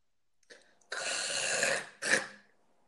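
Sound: hawking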